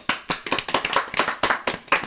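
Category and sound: crowd, round of applause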